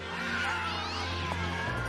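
A crowd of half-wild shorthair cats, about 10,000 of them being herded, meows and yowls at once, overlapping cries forming a steady, fairly loud chorus that fills the whole short moment, with no one speaking.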